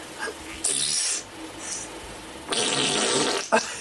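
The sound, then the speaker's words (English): Two breathy, wet-sounding vaginal air releases, a queef, from a woman lying on her back: a short burst followed a moment later by a longer, louder airy sputter with a brief trailing puff. No voices. “On her back, she just farts and farts.”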